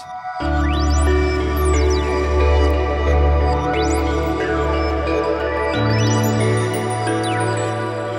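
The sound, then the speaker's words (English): Several layered sampled channels play together on a Morphagene module as a dense electronic texture, with steady low drones beneath bright tones that repeatedly sweep up and down in pitch, loud and continuous, with no talking. “So if it plays together, sounds like this.”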